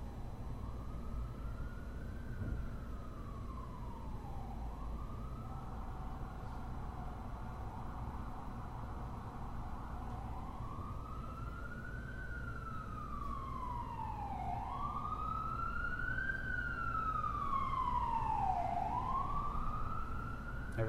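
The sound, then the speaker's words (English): An ambulance siren wails in slow rising and falling sweeps over a constant rumble of traffic, growing louder and sharper toward the end. “I'm always so grateful when the ambulance, you can hear it just flying through.”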